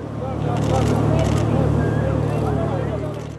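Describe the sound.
A rescue ship's engine drones steadily and low at night in Sicily while a press photographer's camera shutter clicks a couple of times, with indistinct voices murmuring in the background.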